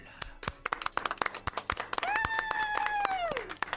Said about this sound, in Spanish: Hoy pido un aplauso por el Día Mundial de Drácula.